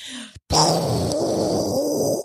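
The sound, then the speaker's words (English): A voice imitates the 'Woj bomb' blast: a short breathy lead-in, a brief pause, then one loud, rumbling boom held for nearly two seconds before cutting off. “This is the bomb. This is the sound of the Woj bomb.”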